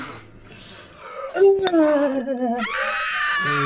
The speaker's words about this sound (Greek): Και ε, από το φρεάτιο ακούτε ουρλιαχτά